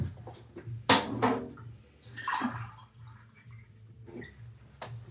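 Water splashes and gurgles as it is poured into a glass, with a couple of sharp clinks and a brief rising trickle over a low steady hum; no one speaks.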